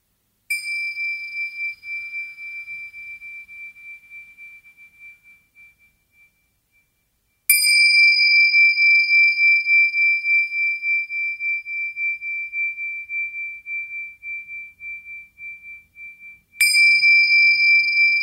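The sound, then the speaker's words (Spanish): A meditation bell is struck three times, each clear metallic tone ringing out and slowly fading into a long, shimmering decay; the final strike is cut off soon after it sounds. No voices. “y después de escuchar el sonido de la campana, vamos a ir lentamente regresando y abriendo los ojos.”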